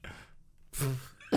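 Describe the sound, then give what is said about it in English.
A dog huffs with a sharp breathy snort, then a second quick snuffly burst follows a moment later, with no talking. “that was the dog.”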